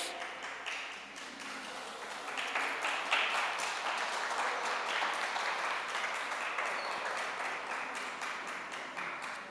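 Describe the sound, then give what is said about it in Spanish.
A church audience claps steadily for several seconds, a dense wash of many hands applauding together for God, swelling slightly partway through and holding at an even level without any talking. “Gracias a Dios que su aplauso sea para él, mis hermanos y hermanitas.”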